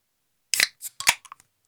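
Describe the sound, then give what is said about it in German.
A beer bottle being opened: a quick cluster of sharp metallic clicks and a snappy pop, around five short bursts in under a second, with no voices. “Ich wollte jetzt noch ein Bier aufmachen.”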